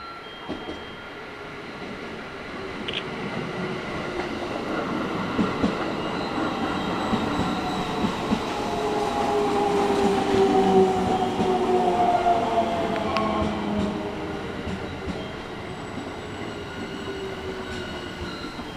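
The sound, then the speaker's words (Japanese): A six-car local train bound for Toyohashi rolls in to platform 2 with a steady low rumble and rattling wheels, rising in loudness midway as thin metallic squeals and whines glide in pitch, then easing off as it slows; no one speaks. “まもなく2番線に普通列車豊橋行きが到着します危ないですから黄色い点字ブロックの内側までお下がりくださいこの列車は6両編成です”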